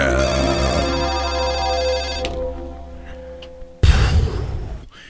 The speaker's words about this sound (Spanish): Siguen sonando las eh, líneas telefónicas.